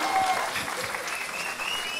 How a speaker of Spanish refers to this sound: Y en esta que no es la última sección de este programa, les vamos a presentar a grandes comediantes, grandes amigos y sobre todo personas que no nos han tirado mamadas en Twitter. Un aplauso, un aplauso.